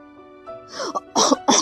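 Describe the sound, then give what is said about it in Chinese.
A grandfather coughs in a short run: a couple of soft, rough throat sounds building into two loud, harsh coughs at the end. No one speaks. “我要用我花园里的草药，给你泡一杯茶，然后再加点新鲜的蜂蜜，对你的咳嗽有好处。”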